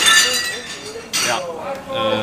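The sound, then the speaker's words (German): Dishes clatter and clink, with a sharp crash of breaking crockery partway through and a second smaller clink after, while murmuring voices carry on underneath. “Übrigens brauchen die ja bald neues Geschirr, wenn sie genau.”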